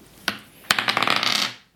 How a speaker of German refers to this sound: So, ja, nächster Punkt, deine Mana Points. Ein sechsseitiger. Würfelst du?